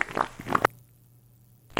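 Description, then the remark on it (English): A voice imitates a long fart with a raspy, sputtering buzz lasting just over half a second. Near-silence with a low hum follows before another burst starts at the very end. “It was a long fart.”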